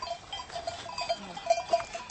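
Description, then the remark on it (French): A herd of goats bleating as they come toward the listener, several overlapping calls rising and falling over a couple of seconds, with faint tinkling bells in the background and no one talking. “Oui, bah, des chèvres, il y en a un paquet. Hein. Ah. Ils viennent vers nous.”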